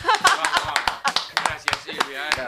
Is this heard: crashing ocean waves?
no